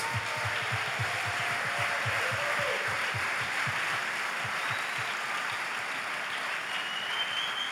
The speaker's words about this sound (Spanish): Ya que están acá los pastores, vamos a darle un aplauso a nuestros pastores.